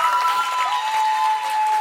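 Steady, dense applause from a crowd for the Samaritan in a retelling of the Good Samaritan story, many hands clapping without a break for about two seconds, with a thin, constant high tone running underneath.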